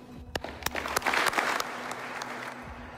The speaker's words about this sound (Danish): Jeg synes, vi slutter med at give befolkningen en, og vores fans en klapsalve fra vores side.